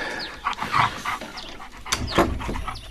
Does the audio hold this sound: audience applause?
no